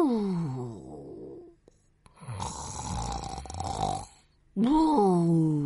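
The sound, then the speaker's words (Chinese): A voice imitates a little pig snoring comfortably after burrowing into a big soft quilt: a drawn-out, falling grunt, then a long rasping snort, then another throaty voiced snore. It is moderately loud, with short pauses between the sounds and no words spoken. “小猪掏出一个软和的大被窝，接着一头钻进被窝里，舒服的打起了呼噜。”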